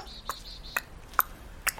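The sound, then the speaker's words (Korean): A quiet, steady tick-tock of a clock, four evenly spaced crisp clicks about half a second apart, heard alone against a soft background hush. “그놈의 똑딱똑딱 소리. 내가 여기 오는 동안 천 번은 들는것 같네.”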